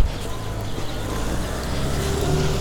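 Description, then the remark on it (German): A steady, low roar of motorway traffic not far away forms a continuous wash of background noise, with no talking, swelling slightly toward the end. “Also die Autobahn ist hier mal wieder nicht weit weg.”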